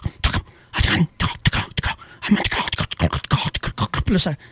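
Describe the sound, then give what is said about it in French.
A voice imitates tongue clicks against the palate: a rapid, irregular run of sharp clicking pops mixed with breathy, throaty bursts, with no words spoken. “Tu sais, comme une langue qui pète au, palais, là.”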